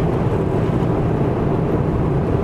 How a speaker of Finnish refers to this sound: 1,7 litrainen turbodiesel liikuttaa tätä ihan hyvin. Tekniikaltaan tämä on ihan, moottoritekniikaltaan ihan nykyaikainen